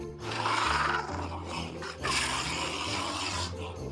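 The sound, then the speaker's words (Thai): An Asiatic black bear, a large black bear found in Thailand, gives a long, harsh, raspy growl that rumbles continuously for several seconds, loud, with a brief dip before the rough roaring resumes. “หมีอีกชนิดหนึ่งในเมืองไทยก็คือหมีควาย”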